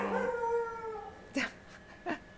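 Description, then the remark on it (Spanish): Several dogs howl together in long, wavering tones, followed by a couple of short, sharp yips or barks. “aquí todos los perros están apoyando, apoyando mi emoción, ¿sí?”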